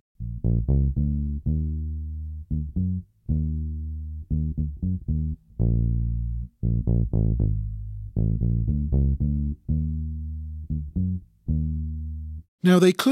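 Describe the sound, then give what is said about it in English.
A low bass guitar line comes in as a song's first verse starts and the keyboards stop their low note, a steady run of punchy, sustained notes in a bouncing rhythm, fairly loud and slightly gritty, ending with a brief bright crash. “And that's where the bass guitar comes in.”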